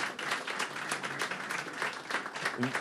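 Steady, dense applause from a group of people, a continuous crackle of many hands clapping at even loudness, with a brief voice sound near the end.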